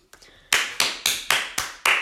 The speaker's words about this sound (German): Einmal bitte klatschen und jubeln.